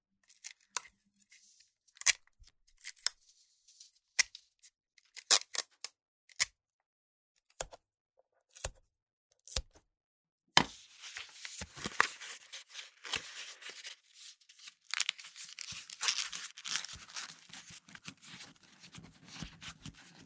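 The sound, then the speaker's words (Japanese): Adhesive tape is handled while making a thin pipe, three pieces being taken: a string of sharp, crisp clicks and snaps, then a longer, rasping stretch of tape being pulled and torn off the roll. No one speaks. “最後に、細い、細いパイプを作る。テープを3枚取って、”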